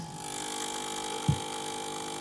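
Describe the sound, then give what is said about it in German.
A coffee machine in a kitchen runs in the morning with a steady mechanical whir and hum, with a single soft knock partway through and no voices. “Göttlicher Lärm der Kaffeemaschine.”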